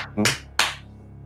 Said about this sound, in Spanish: Yo no sé por qué aplaudes, pero bueno.